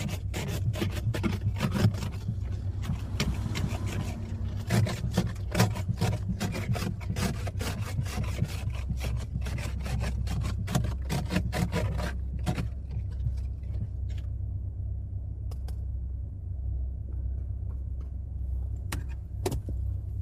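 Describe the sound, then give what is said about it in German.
Repeated rasping scrapes of an ice scraper against a car windshield, clearing hard ice pellets frozen onto the glass, quick irregular strokes over a steady low engine rumble, thinning out to occasional scrapes toward the end. “Dann kratzen wir erstmal die verfickte Scheibe frei.”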